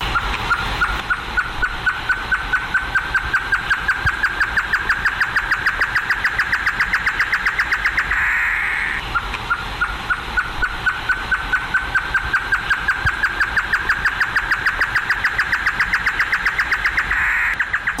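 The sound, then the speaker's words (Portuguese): A chorró bird sings a long, loud, rapid trill of pulsing notes whose pitch creeps slowly upward, breaks off briefly midway, then starts again and keeps going steadily. “Vamos ouvir o canto do chorró.”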